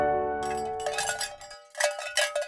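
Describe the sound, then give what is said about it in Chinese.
Cowbells hung on cows' necks clank in an irregular, jostling rhythm, with bright metallic clinks and a lingering low ring at the start, then several quick clusters of tinkling strikes. “这是挂在牛脖子上面的牛铃声。”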